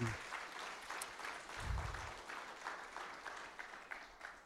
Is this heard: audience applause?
yes